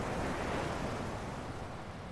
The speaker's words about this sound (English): The tide looks a bit closer, and the waves are certainly bigger than they were last night. But there are no freak waves.